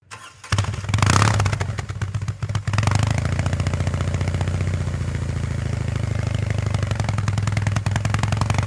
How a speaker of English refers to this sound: And speaking of that beautiful boxer engine sound, I can treat you to a little snippet of how the Concept R18 sounds when it was started up and ticking over at the Concorso.